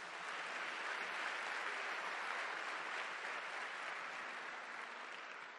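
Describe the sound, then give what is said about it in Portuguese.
An audience breaks into sustained applause, a dense, steady wash of many hands clapping at even loudness for several seconds, with no voices standing out above it. “Então dá uma salva de palmas para Jesus.”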